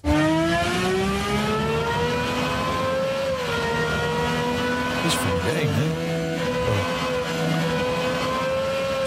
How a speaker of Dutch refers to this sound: Even naar het geluid luisteren van die Valkyrie.